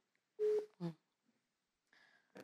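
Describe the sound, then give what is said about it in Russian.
A phone rings with an incoming call: a few short electronic tone bursts, bright and fairly loud, then a softer chirping phrase, with no voices. “Постоянно мне звонят, знаешь, когда ты ИП, звонят тебе постоянно.”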